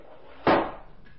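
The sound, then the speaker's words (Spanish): A single heavy steel vault door, pushed shut by two people, slams with a loud, sharp bang, followed by a brief ringing decay; no one speaks during it. “Empujaron la enorme puerta de acero y...”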